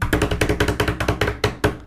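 Rapid knocking, roughly a dozen firm raps in quick, steady succession, each sharp and loud, with the last few spaced slightly wider before it stops. No one speaks.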